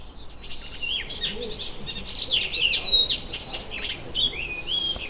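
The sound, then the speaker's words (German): An icterine warbler sings a rapid, varied stream of chattering, whistled and scratchy phrases, continuous, with no voices and only a faint background hiss. “mit Sicherheit genau die Person unter den Gelbspöttern, die diese Art der Strophen interessant fand und sie eingebaut hat in seinen ihren Gesang.”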